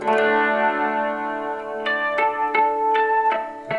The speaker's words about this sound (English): Okay, it's um, it's the wet stereo reverb, yeah. NT Neuwaunaber. It just creates the most fabulous reverb, super shimmering.